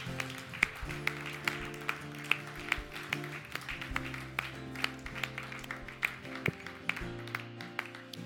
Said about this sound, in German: Hey, ich glaube, lass uns mal allen Applaus geben, die toll für Jesus entschieden haben.